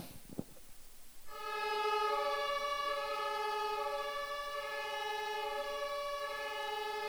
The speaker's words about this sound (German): Und ich habe dir ein Beispiel mitgebracht, an dem du es schon mal sehen kannst. So klang früher vor etwa 100 Jahren das Martinshorn.